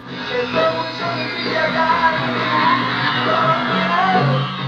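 A lo-fi live rock recording made in late 1967 or early 1968, muffled and thin with the treble cut off, where band and raw, shouted vocals blend into a dense, steady wall of sound throughout.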